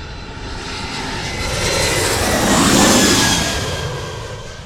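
A jet airplane passes low overhead at Gravelly Point near Washington, its broad engine roar swelling to a peak midway and then easing off, with a faint high whine and sweeping tones as it goes by. No one speaks.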